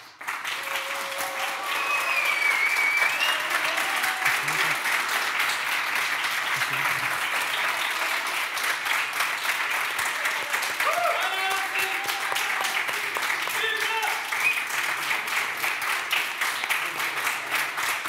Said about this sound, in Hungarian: A helyben lévő közönségtől azt szeretném kérni, hogy mindhárom képviselőjelöltet egységesen tapsolják meg.